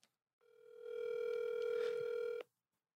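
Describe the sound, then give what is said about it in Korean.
A single long electronic phone ringback tone from a call being placed during a broadcast, steady and clear, lasting about two seconds before cutting off abruptly, with no voices. “그럼 예나이한테 전화해가지고 아, 좋아요.”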